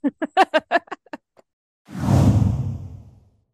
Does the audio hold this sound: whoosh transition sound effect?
yes